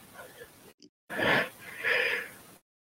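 A loud sneeze in two parts, a breathy wind-up followed by a forceful burst, after a brief moment of quiet and some faint low background sound.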